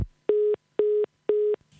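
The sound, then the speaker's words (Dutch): A phone line tone after a call drops on a faltering connection: a steady mid-pitched beep pulsing on and off in an even rhythm, four loud pulses with silence between and no voices. “sorry, de verbinder hapert wat, dus we zitten wat door elkaar heen te praten.”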